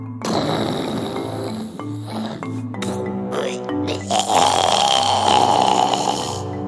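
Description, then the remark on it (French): Loud, rumbling snoring of a deeply sleeping dinosaur that grinds on for several seconds in a few drawn-out, throaty bursts, dominant with no other sounds around it. “Mais quelques instants plus tard, un ronflement sorti de nulle part avait fait sursauter”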